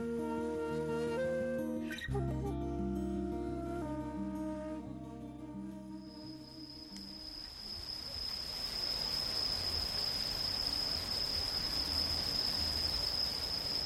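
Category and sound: insect, crickets chirping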